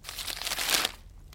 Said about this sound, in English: Graezen picks up a piece of paper and hands it to Radon.